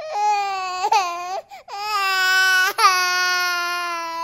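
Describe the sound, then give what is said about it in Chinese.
A neighbour's Persian cat wails like a crying baby: three long, loud, high-pitched yowls with bending pitch, separated by brief catches of breath, with no voices present. “也发出可怕的婴儿哭声”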